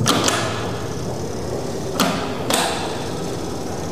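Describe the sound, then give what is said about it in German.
A Siemens hand-dryer blower runs after hand washing with a steady, broad whooshing hiss, broken by a few sharp, irregular ticks: two quick ones at the start, then two more later on. “Er tickert nur, aber er macht nicht trocken.”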